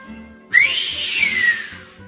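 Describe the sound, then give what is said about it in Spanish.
A person whistles one long note that swoops up sharply, then glides slowly downward for about a second and a half, fairly loud, with no talking. “silban otros, y todos al instante, ¿cuál fue el puerco?”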